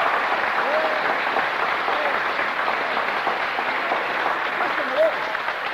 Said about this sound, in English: If you believe it's lovely, now give him a clap.